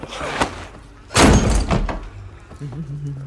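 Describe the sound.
A heavy door slams shut with a loud, booming impact that rings out briefly, preceded by a softer thud; a voice murmurs faintly afterward.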